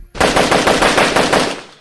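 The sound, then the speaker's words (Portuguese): A machine gun, fired by a passenger on the back of a motorcycle at an armored car, fires one loud, sustained burst of roughly ten rapid shots in an even rhythm, harsh and sharp, then cuts off and trails away. No voices are heard. “Uma pessoa guiando a moto e outra com a metralhadora atrás, descarregando no carro.”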